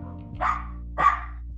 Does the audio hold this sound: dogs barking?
yes